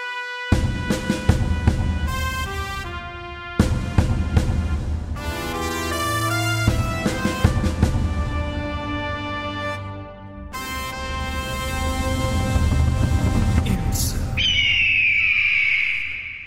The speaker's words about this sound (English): So, and with absolutely due respect to those uh, those those characters uh, ca- categories, excuse me, that uh, feature the Andrew Backer supplied jingles.